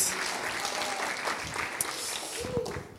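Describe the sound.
A church audience claps steadily for a speaker, a dense patter of many hands filling the space for several seconds, with a few faint voices and cheers mixed in.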